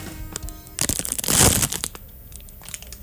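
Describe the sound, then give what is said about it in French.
The plastic wrapper of a Nature's Bakery fig bar is torn open with bursts of loud crinkling and crackling, peaking in a sharp rip midway, then settling into a few lighter rustles. “Donc, euh, qu'est-ce que t'en penses si on ouvrait notre petit emballage?”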